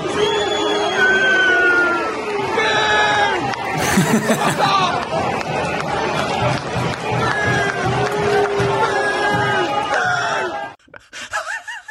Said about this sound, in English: But this this was great. This is Everton fans booing off their team at Bournemouth, but uh, conspicuous mainly for its isolated enunciations of booing. This is great.